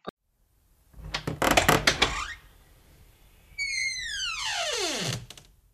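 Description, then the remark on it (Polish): Wooden creaking from the belly of a huge horse: first a short, stuttering crackle of creaks, then after a pause a long, drawn-out groan that slides steadily downward in pitch before stopping. No voices. “Tymczasem brzuch ogromnego konia zaczął dziwnie skrzypieć.”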